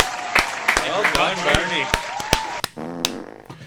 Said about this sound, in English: and I give you a round of applause for that. There you go.